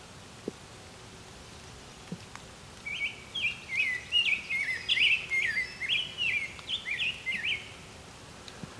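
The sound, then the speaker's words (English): A brown-headed cowbird calls in a quick run of high, squeaky chattering notes lasting several seconds, clear over a quiet outdoor background with a couple of faint clicks. “It's a brown-headed cowbird here somewhere.”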